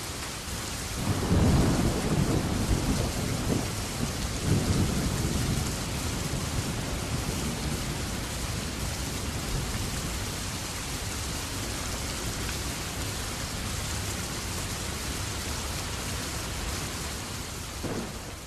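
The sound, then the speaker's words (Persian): Heavy, fast, fine rain pours steadily outside a village house while deep rolls of thunder rumble through, strongest near the start, with a dense hiss of downpour continuing to the end. “با صدای رد جوون روستایی از خواب پرید موجی از شادمانی توی قلب جوون بود از در خونه اومد بیرون داشت بارون می اومد چه بارونی هم بود تند و ریز”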